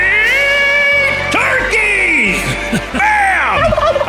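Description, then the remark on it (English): A wild turkey gobbles loudly in spring turkey season, its rapid warbling rattle repeating in bursts over a steady low hum, with a brief voice-like sound mixed in. “That means one thing it's turkey season.”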